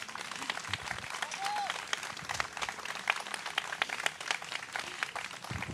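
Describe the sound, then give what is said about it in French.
An audience claps steadily in sustained applause for a young woman solo sailor being introduced, a dense patter of many hands filling the whole stretch at moderate loudness, with no break or fade. “Et euh, l'année dernière, vous êtes la plus jeune femme à avoir fait la solitaire du Figaro, avec de très beaux, et on peut l'applaudir.”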